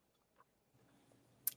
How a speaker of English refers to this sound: it is my little dog, and he's sitting in my lap, ch- happily chewing on a rawhide.